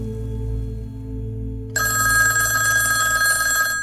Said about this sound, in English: 250 miles away in St. Louis, Jack Gillum and his wife arrived home to find the telephone ringing. The call was from one of the architects at the Hyatt Regency Hotel.